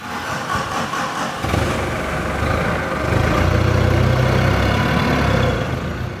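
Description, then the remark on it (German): A forklift engine runs steadily in a storage hall as it drives to a large pile of potatoes, its low mechanical drone swelling louder midway as the vehicle moves, with a reverberant, hall-like roomy sound and no talking. “fährt gerade mit dem Gabelstapler zu einem großen Kartoffelhaufen in der Lagerhalle.”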